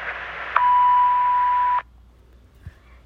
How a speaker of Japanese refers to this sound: ピーという発信音の後にお名前とご用件をお話しください